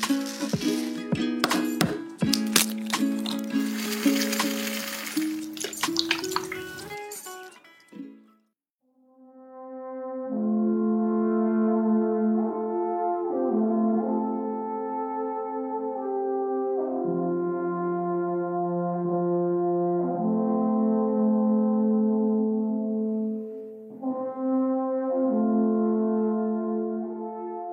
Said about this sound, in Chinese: 刚才听众朋友们听的那个声音呢，其实它是来自于瑞士的这个呃阿尔卑斯长号。它呢每年就是在瑞士的这个小镇上会有一个音乐节，很多人来参加这个音乐节，然后用这个长号来谱写各种各样非常优美动听的音乐。